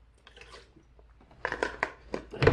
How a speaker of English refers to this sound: Give me, folks, just having a glass of water, here. Well, a glass, a bottle of water. Bottle of water, yes.